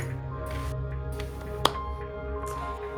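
A woman gives a single sharp hand clap, crisp and brief, standing out over a steady low background hum with no talking.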